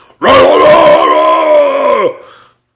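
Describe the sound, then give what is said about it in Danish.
A voice imitates a man's loud, incoherent shouting: one sustained, strained yell of about two seconds, intense, that wavers before dropping away at the end. “Kenny, fyr der hedder Kenny, som råber utrolig meget”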